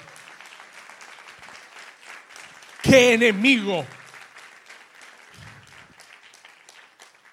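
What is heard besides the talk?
loud audience applause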